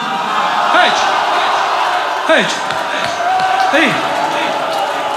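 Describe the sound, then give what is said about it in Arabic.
A crowd rhythmically beats their chests to imitate the sound of the horses that trampled Hussein, producing loud, steady thumps in a repeating pattern, while a man calls out over the pounding. “هيج الخيول تركض على الحسين”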